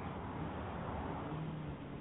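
A big truck's engine rumbles steadily with broad road noise, a continuous low drone at fairly even loudness, with no voices.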